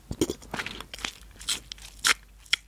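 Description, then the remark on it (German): Wet swishing of ayurvedic oil from India being pulled through the teeth during morning oil pulling, a series of irregular squelchy, crackly bursts from the mouth with short pauses between, no talking. “Damit ziehst du quasi wie wenn du so gurgeln würdest. Du machst dann so komische Geräusche, du nimmst es in den Mund und”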